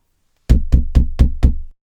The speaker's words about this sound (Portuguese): Natasha finalmente chegou à porta da cabana, tremendo, e bateu.